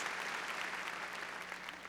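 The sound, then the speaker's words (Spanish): A church audience claps loudly and steadily in praise of the Lord, a dense wash of many hands with no pauses, filling the short stretch without any voices standing out. “Ahora démosle palmas fuertes a nuestro Señor.”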